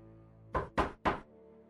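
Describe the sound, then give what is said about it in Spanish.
Three firm knocks on a door in quick, even succession, fairly loud, with a quiet hum before and after. “Y toqué la puerta.”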